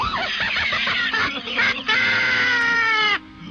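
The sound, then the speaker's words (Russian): A person voices a kikimora's shriek: a loud, strained screech that wails continuously for about three seconds, breaking briefly midway, then cuts off abruptly. “А сейчас для меня целым шприком исполнит крик Киким.”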